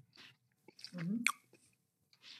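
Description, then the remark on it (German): A quiet bite into chocolate gives a brief sharp snap, surrounded by soft, irregular chewing and mouth noises with no talking. “Genau, also ich werde jetzt mal herzhaft da reinbeißen”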